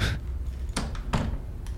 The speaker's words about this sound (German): Okay, dann schlüpfe ich rein und schließe hinter mir die Tür.